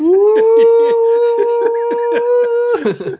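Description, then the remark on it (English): A voice holds a long, steady, low droning hoot in imitation of a foghorn for nearly three seconds, loud, with choppy rhythmic bursts underneath before it breaks off. “every time that happens, I just hear I just hear like this foghorn and and the clouds darken.”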